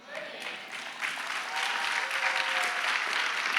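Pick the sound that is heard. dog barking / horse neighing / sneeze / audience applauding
audience applauding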